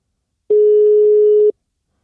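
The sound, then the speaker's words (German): A single steady telephone ringback tone of a Skype call to a German mobile number sounds for about one second, a clear sustained electronic hum heard alone, as the call rings on the other end. “Es klingelt.”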